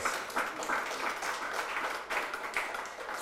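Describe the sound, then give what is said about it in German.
Dense crowd applause for the band at an event in Ostfildern on a hot day, many hands clapping at once in a steady, even wash of sound with small surges, continuing throughout without any talking over it. “Gib der Band doch mal einen Applaus.”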